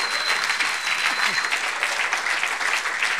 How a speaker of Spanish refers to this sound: un buen aplauso al Señor.